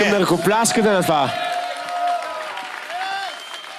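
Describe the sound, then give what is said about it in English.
An audience claps their hands in a steady, noisy wash of applause during a sermon interpreted into Bulgarian. A voice speaks over it at the start, and a sustained tone lingers underneath. “I want you to clap your”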